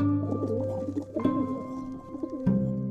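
bird, pigeon cooing

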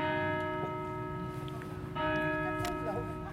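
signal or alarm, church bells ringing

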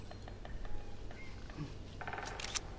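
tool, camera shutter clicking

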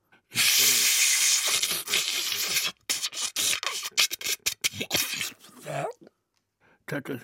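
household object, vacuum cleaner running

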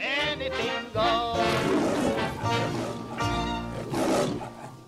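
animal, lion roar

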